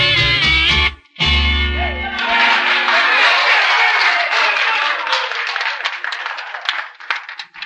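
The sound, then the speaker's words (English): A song ends on a held chord, then an audience breaks into dense, sustained applause, many hands clapping together in a loud, steady wash that thins slightly toward the end. “You fellas are applauding good today.”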